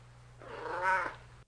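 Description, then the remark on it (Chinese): A black cat with an injured, bandaged leg, clinging with its claws to a man's clothes, lets out one drawn-out, plaintive wail that rises to a strained peak and then trails off, heard alone over a low steady hum. “后来他几次想把黑猫放下，但它就是死死的用爪子勾住自己衣服，不肯松开，而且不断的哀鸣，似乎在哀求他。”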